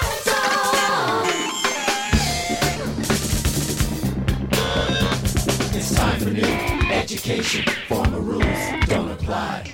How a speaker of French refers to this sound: C'est toujours le même motif de guitare que vous entendez. C'est la même attaque, c'est juste que il va appuyer sur un ré aigu, puis sur un la, puis sur un fa, puis sur un do, donc ça va faire descendre à chaque fois la tonalité